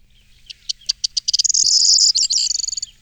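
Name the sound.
bunting song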